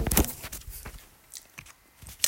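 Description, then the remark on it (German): Crunching of someone chewing almonds, with a loud burst of bites at first, then softer, irregular crunches and mouth sounds. No one speaks. “Es werden so Essgeräusche.”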